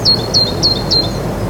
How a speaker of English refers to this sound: So I'm outside. You can probably hear the crickets and some other kind of chirping going on.